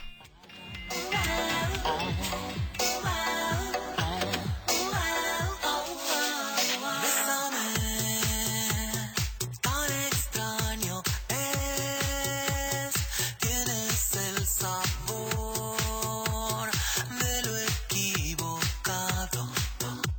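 An upbeat pop song plays on the radio station Super 98.1, loud and clear, with a steady pulsing beat, bright synth chords and what sounds like a singing voice throughout; a brief drop in the low end occurs early on.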